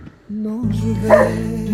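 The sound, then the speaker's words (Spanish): Six dogs bark and whine in a brief, continuous burst on a rainy day, with a sustained tonal whimper leading into louder, rougher yelping that grows stronger before trailing off. “Eh, y vas a escuchar ladridos porque tengo mis seis perros, está lloviendo acá, estoy bajo la galería para poder hablar”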